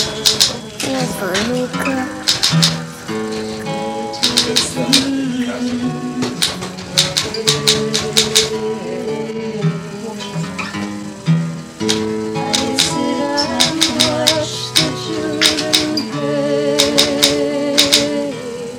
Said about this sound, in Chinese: 如果你在油管上面找到这一段小小的 clip 之后，你还可以听到一些打字机的声音啊。